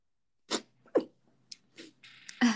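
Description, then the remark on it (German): A sneeze: a sharp breathy burst, a quick voiced catch, then a few softer noisy puffs amid otherwise quiet. “Ja, Entschuldigung. Gesundheit.”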